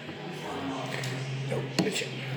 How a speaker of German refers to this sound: Hier wurden einmal gerade die Gläser gewechselt.